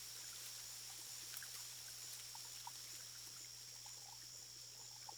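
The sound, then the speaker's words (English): Faint, gentle trickling of irrigation canal water flows steadily with small scattered bubbling drips, set against a continuous high-pitched drone of crickets chirping in the distance and a low hum. Quiet and calm, with no voices. “Just the gentle trickling of the irrigation canals and the chirping of crickets in the distance.”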